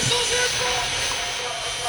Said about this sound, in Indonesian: oh ini drone.